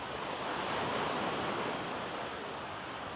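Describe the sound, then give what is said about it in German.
Steady roar of ocean surf washing onto an eroding shore on Guadalcanal, Solomon Islands, where seawater is eating into the land and a football field once lay; a dense continuous rush of breaking water with no gaps, consistent in loudness throughout, with no voices. “Wo jetzt die Wellen rauschen, lag früher ein Fußballplatz”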